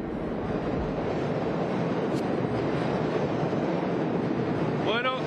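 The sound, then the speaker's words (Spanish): A loud, steady roar of a subway train rumbling past a platform in a system whose trains run to Queens, Brooklyn and Lower Manhattan, dense noise throughout, then a brief rising metallic whine near the end. “muchos de los trenes de aquí se dirigen hacia Queens, hacia Brooklyn, hacia el Bajo Manhattan”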